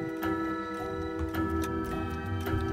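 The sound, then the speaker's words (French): Clock pendulums in a clockmaker's shop tick in a slow, steady rhythm, sharp clicks about once a second, as the clockmaker sweeps in front of his shop in time with them, set against sustained tonal music from a film's opening credits. “Il passe près de la vitrine d'un horloger qui balaye devant sa boutique au même rythme que les balanciers de ses horloges.”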